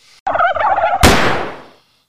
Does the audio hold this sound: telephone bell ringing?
no